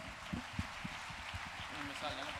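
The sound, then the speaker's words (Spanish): An audience at a verbena (open-air festival) applauds the lighting and sound technicians steadily for a couple of seconds, a dense wash of many hands clapping with a few sharper claps standing out, and faint voices or cheers mixed in near the end. “Outro aplauso, outro aplauso para eles, por favor.”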